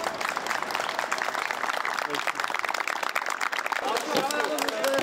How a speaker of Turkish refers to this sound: Cumhurbaşkanı Erdoğan'a alkışları avluda yankılandı.